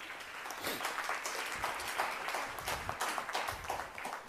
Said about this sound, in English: Only parents clapping.